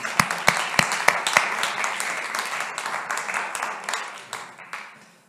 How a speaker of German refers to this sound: Wir wollen euch nochmal einen ganz großartigen Applaus geben.